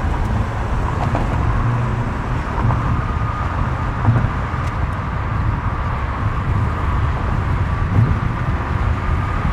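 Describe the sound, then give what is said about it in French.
A steady, dense roar of traffic on the Dan Ryan Expressway, a huge urban highway in the United States with six lanes each way heading south, with continuous low rumbling engines and tire noise from many passing vehicles, unbroken for the whole stretch and no voices. “Nous voilà sur la Dan Ryan Expressway, gigantesque et monstrueuse autoroute urbaine qui file vers le sud.”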